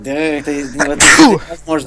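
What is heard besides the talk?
sneeze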